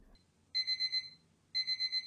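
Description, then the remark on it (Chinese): An electronic alarm clock beeps in two bursts, each a rapid pulsing run of high, bright tones with a short silent gap between them; no one speaks. “闹铃响起，李潇这才迷迷糊糊的睁开眼”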